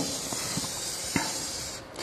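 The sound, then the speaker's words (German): A steady, hissing scratch of a pen drawn along a ruler, drawing a long straight number line at the top of an exam sheet, with a few faint soft taps mixed in, lasting about two seconds with no talking. “Du nimmst irgendeinen geraden Stift oder ein Lineal, je nachdem, was du hast, und malst eine lange Gerade.”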